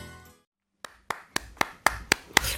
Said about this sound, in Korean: 사람 박수 소리가 이 손바닥 부딪히는 소리가 아주 참 경쾌합니다.